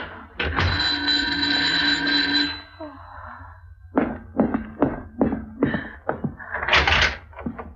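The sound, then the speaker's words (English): A series of sharp raps on a door, several knocks in an uneven rhythm, following a brief stretch of sustained mechanical noise. “Someone's at the door.”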